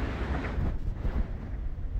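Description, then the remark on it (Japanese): Steady morning rain and wind noise heard outdoors on the way to work, a dense low rumble with a constant hiss and gusty buffeting across the whole stretch, no voices present. “今日も朝から雨なんですが出勤中に配信していきたいと思います雨がやばい”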